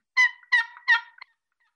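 A turkey yelp played on a long box call of the boat-paddle kind: three raspy, high-pitched notes in an even rhythm, each about a quarter-second, with a couple of faint short clucks trailing off, no talking.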